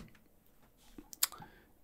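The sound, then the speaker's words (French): A computer keyboard is shifted aside, giving a couple of quick plastic clicks and a short clatter, followed by a faint scrape, with no talking. “Je vais le mettre de côté, mon clavier”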